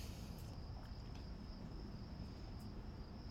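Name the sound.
crickets chirping at night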